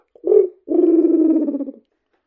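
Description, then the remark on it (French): A voice imitates a dove's cooing as a vocal sound effect: a brief low hoot, then a longer, sustained throaty coo with a slight wavering quality, fairly loud and alone. “Le train, la deux chevaux qui démarre, euh, le canard dans la mare et la colombe.”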